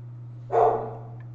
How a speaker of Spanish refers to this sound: Sí, eh, perdón, disculpen a mi perro que anda ladrando, está tocando.